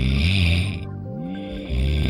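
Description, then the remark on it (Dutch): Loud snoring with a deep, rattling drone that swells and fades across a couple of breaths, with a breathy hiss on the first one and no talking. “Nee, niet snurken, maar slaapapneu.”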